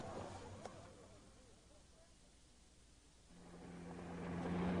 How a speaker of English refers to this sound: The bus? The station wagon. I should warn you, it's not very well sprung. You'd better be prepared for a bumpy journey.